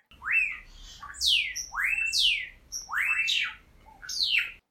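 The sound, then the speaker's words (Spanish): Small birds sing in the countryside in a bright, clear series of rising and falling whistled phrases, repeating every second or so, with a soft low background hum and no talking. “Adelantamos el reloj y vemos los rayos del sol besando el pasto, los pajaritos cantando y otra tacita de café.”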